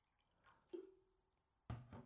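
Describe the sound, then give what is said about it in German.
Water is poured into a glass to refill it, with two quick splashy bursts and a brief ringing glass tone between them. The sound is quiet, with no one talking. “muss gerade mal hier ein bisschen Wasser nachschenken, bevor die Stimme nämlich völlig abkackt.”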